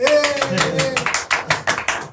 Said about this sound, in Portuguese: Uma salva de palmas.